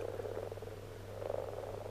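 frogs croaking

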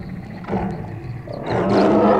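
big cat roaring

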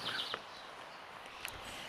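birds chirping outdoors

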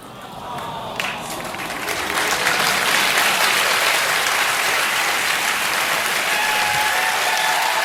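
studio audience applause

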